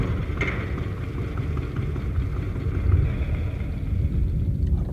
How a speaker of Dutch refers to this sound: Ja, daarom probeer ik dat kring van een pomp aan de gang te krijgen.